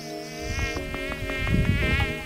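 A flying insect buzzes steadily for a couple of seconds, its droning whine wavering slightly in pitch, with a few soft fluttering bursts and a low rumble underneath. No one speaks.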